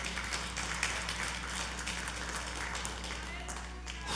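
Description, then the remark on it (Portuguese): An audience at a night church service applauds God steadily, a dense wash of many hands clapping at even loudness throughout, with voices and a low steady hum running underneath. “Você pode aplaudir a Ele nesta noite?”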